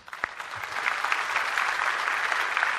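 A crowd claps steadily, giving a hand for Psalm 37, a dense wash of many hands that swells in the first moment and then holds at an even, moderate level, with no talking over it.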